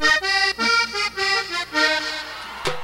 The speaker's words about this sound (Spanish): Si dejas que el acordeón abra su boca, suena así.